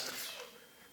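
A short, breathy sneeze bursts out at the start and trails off quickly, fairly soft, with no talking around it.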